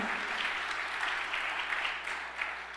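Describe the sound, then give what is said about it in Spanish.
A church audience applauds steadily, a dense wash of many hands clapping at a constant level for a few seconds, with no voices standing out. “Vamos iglesia, dale un aplauso fuerte.”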